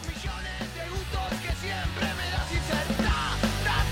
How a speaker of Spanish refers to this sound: Viste que es como más rockero y más punk en algún punto. mucho más gritado.